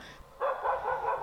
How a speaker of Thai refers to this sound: ถ้าเราได้ยินเสียงหมาแบบนี้เห่าใส่เราก็เฉยๆเดินของเราไปเรื่อยๆ นะคะ แล้วก็ระวังตัวนิดนึง เพราะว่าหมาบางตัวก็อาจจะดุก้าวร้าว